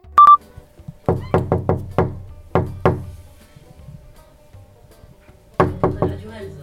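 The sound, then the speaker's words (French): Loud knocking on a door in quick bursts: a rapid run of five raps, two more shortly after, then another cluster of four or five after a pause, following a short electronic beep. “Pour tout vous dire, c'est moi qui ai frappé”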